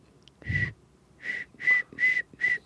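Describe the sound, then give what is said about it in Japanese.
A person whistles five short, airy notes in a steady rhythm, each a brief breathy burst at the same pitch, fairly soft, with a low thump under the first note. “口笛できる口笛は”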